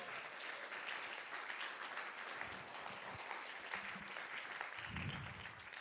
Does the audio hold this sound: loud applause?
yes